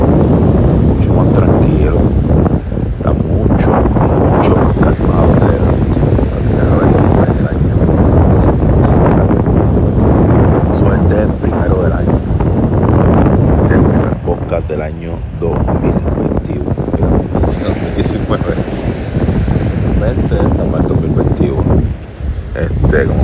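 A steady, continuous wash of calm ocean waves, fairly loud, with heavy wind buffeting the microphone and a low rumble throughout and no distinct breaking crashes.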